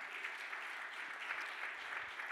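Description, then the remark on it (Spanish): A church audience claps loudly and steadily in applause to the Lord, a dense wash of overlapping applause filling the room for a couple of seconds without any voices standing out. “Del otro aplauso fuerte al Señor.”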